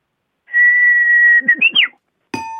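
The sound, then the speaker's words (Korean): A Japanese bush warbler song: one long, steady whistled note, then a quick, sharply rising and falling flourish of chirps. A separate clear tone cuts in briefly just before the end. “새 휘파람새 들어볼게요.”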